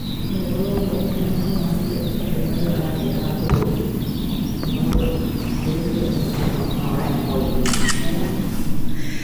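A soundscape of museum restorers working on a research expedition, played as a soundtrack in a museum exhibition hall: a dense, steady low rumble with birds or insects chirping above it and occasional sharp clicks and taps scattered throughout, fairly loud.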